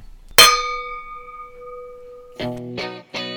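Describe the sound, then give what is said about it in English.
Wine glasses clink once in a toast, a bright strike whose clear ring fades over about two seconds, followed by three short, low tonal bursts. “Cheers to that.”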